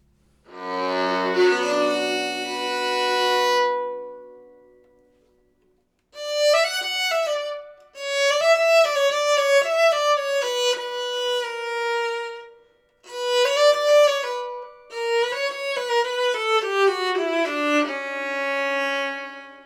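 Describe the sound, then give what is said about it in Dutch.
A bowed string instrument with ringing sympathetic strings plays alone, starting with a long sustained chord that fades, then several flowing melodic phrases with a rich, shimmering resonance and brief pauses between them. “daar zitten ook nog snaren en die gaan meetrillen op de resonantie van nou, wat de noten die ik speel”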